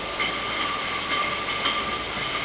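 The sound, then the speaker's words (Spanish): A winery's bottling line runs steadily, bottling screw-capped vino de la tierra for northern Europe: a dense mechanical rumble and hiss with a constant high whine, broken by a few brief rattling clinks. No one speaks. “estamos ahora mismo en lo que es la embotelladora. Estamos embotellando.”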